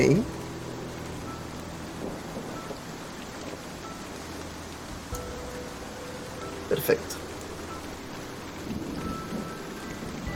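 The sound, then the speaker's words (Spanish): Steady rain falls outdoors on people standing without shelter, a dense, even hiss of drops with no letup. A voice speaks briefly over it, and a couple of short knocks stand out near the end. “Tú estás ahí al parecer no es muy difícil estar como atento por el mismo sonido de la lluvia, el, agua que te cae también directamente en la cara sin mayor como refugio”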